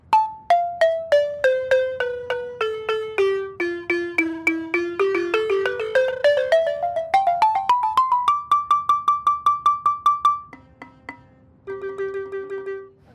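A balafon, traditionally called bala, an instrument from Africa, played alone: quick mallet-struck notes with a buzzy rattle from its plastic, sweeping down and back up, then a rapid repeated high note and a few lower ones.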